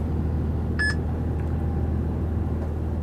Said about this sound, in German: So, das war das Piepsen von meiner Parkplatz-App die möchte gerne eine Eingabe von mir haben, ob der Parkplatz belegt ist oder nicht.